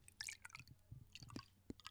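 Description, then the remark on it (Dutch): A quiet trickle of liquid with small irregular splashes and gurgles as Buster Innocent wine from a freshly opened bottle is poured into a glass, with no voices. “Dat ik het even ja. inschenken.”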